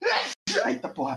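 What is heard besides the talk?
sneeze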